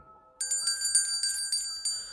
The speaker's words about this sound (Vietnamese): Một lát sau ông lấy thanh kiếm gỗ Rồi dơ ra cái chỗ đào được ngôi mộ hôm trước Rồi múa máy Ông vừa giơ kiếm vừa rung cái chuông nhỏ trên tay của mình